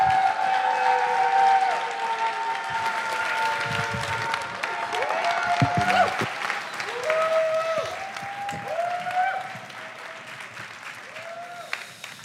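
A crowd at Axe Church claps loudly and steadily to welcome the superintendent, a dense wash of applause that holds through the whole stretch, with some cheering and whoops rising above it.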